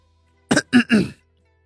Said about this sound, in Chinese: 温志安清了清嗓子，问道